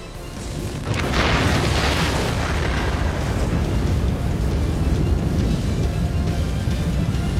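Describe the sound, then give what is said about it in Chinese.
A Soviet nuclear reactor explosion, caused by a control-rod design flaw after the emergency button was pressed, with power surging past 33 billion watts against a 3.2-billion-watt design: after a brief quiet moment, a sudden heavy boom erupts into a loud, sustained low roar and rumble that continues unbroken to the end, with no voices. “这种情况下，反应炉怎么可能不爆炸？”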